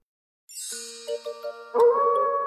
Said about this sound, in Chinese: 今晚满月，当大狼们对着圆月嚎叫时，小狼也想在那里。